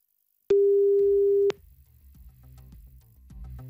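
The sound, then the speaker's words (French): A single steady electronic ringing tone on an outgoing phone call to a prize winner sounds for about a second, clear and fairly loud, then cuts off, leaving a low muffled line rumble. “Allez, passez-moi celle ou celui qui a gagné 1000 euros cash, s'il vous plaît. Ça sonne.”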